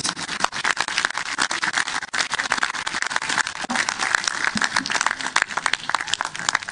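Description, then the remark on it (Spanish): Sustained audience applause, called for by the speaker for everyone in attendance, fills the whole stretch, dense and steady with many hands clapping at once, loud, with no one speaking over it. “Pero antes, quiero un aplauso por todos ustedes, por su corazón de chilena por estar aquí.”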